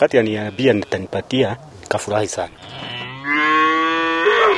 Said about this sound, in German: Hinter dem Haus stehen drei Kühe.